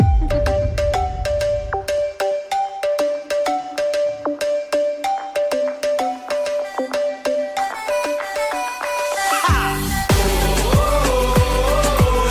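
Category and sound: sound effect, pop song intro playing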